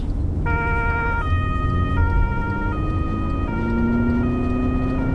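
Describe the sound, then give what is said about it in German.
A two-tone siren on a security bus alternates steadily between high and low pitches, loud, over the constant rumble of the engine and road noise as the bus races at top speed on an emergency run toward Gate 224 after a reported attempted climb-over, with no one speaking. “Bitte mal mit Alarmfahrt Richtung Tor 224 fahren.”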